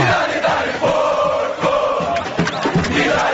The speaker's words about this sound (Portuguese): me mandou uma música. Eu vou colocar aqui.